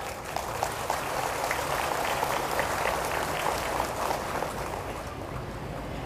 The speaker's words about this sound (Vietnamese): những tràng vỗ tay của quý vị đã cho thấy rằng à, quý vị cảm thông được với ba ẩn dụ này và cam kết rằng là mỗi khi à, mình vương phải một nỗi khổ niềm đau nào đó phải có trách nhiệm hạ đặt nó xuống